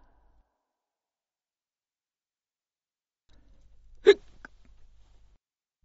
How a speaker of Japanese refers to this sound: いつも通り構成の仕事をしていると、しゃっくりが出た。控えめな音が続き、収まってきたかと思えば、突然大きなものが飛び出して驚かされる。胸の中に変な生き物が住み着いたようだ。